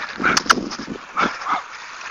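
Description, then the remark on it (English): A small Jack Russell terrier barks from behind a fence in a few sharp, high yaps, a quick pair followed by two more after a short pause, with no one talking. “There's a Jack Russell. We're pretty in a fence barking.”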